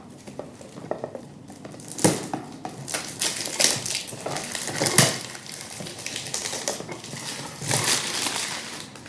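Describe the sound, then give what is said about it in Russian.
Crinkling and tearing as sealed perfume packaging is opened, with irregular bursts of rustling plastic and cardboard and a few sharper snaps. No one speaks. “Ну что, открываем, пробуем аромат.”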